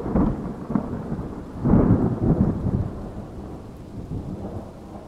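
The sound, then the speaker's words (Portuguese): Deep rolling thunder rumbles through a storm, swelling in loudness around the middle before fading into a low grumble, with steady rain hissing underneath and no voices. “Esses trovões são meio assustadores, né?”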